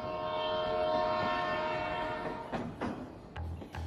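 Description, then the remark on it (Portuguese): A train horn blares with a sustained, harmonic-rich tone over rumbling rail noise, then fades as clattering mechanical sounds and brief bursts follow near the end. No one speaks. “É o sinal do trem, da mobilidade, que vai alterar os negócios de Itapeva e do Sudoeste Paulista.”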